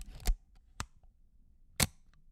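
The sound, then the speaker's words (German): A Leica M3 camera shutter releasing: three crisp, sharp mechanical clicks at uneven intervals, clear against a quiet background, with no one speaking. “Also keine analoge Kamera wie dieses wunderschöne Auslösegeräusch einer Leica M3.”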